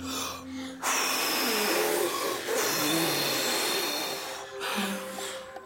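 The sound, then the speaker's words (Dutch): Children blow hard together, making a loud, rushing hiss that imitates wind. It holds steady for several seconds, drops briefly, then surges once more before fading. “Jongens, we moeten nog even harder blazen, oké?”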